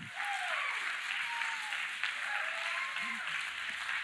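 A crowd applauds steadily, a dense wash of clapping that fills the whole moment without letting up, with faint voices and a few cheers mixed in underneath.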